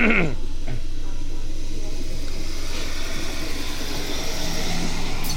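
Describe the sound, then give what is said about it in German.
A diesel railcar coming from the Deutzer Feld runs, being provided for service on the Eifel line toward Trier, its loud engine rumble and rolling noise holding steady throughout, with a brief high whine at the very start. “Genau, dieser Dieseltriebwagen, den wir jetzt gerade hier hören, der kommt ja jetzt aus dem Deutzer Feld, wird bereitgestellt und fährt dann auf die Eifelstrecke nach Tier.”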